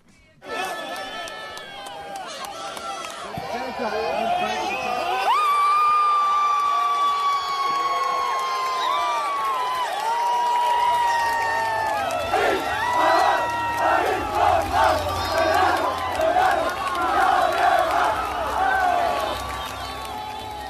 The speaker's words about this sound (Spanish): lo primero era la gente festejando el gol de Chipolina